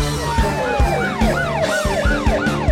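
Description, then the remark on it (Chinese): An emergency vehicle siren wails in quick, repeating rise-and-fall sweeps, about six cycles, loud and piercing over steady music with a regular thumping beat. “一有危险发生，不管哪里马上出动”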